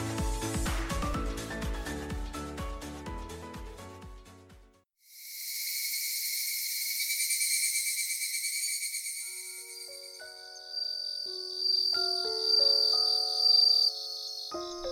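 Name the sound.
cicadas buzzing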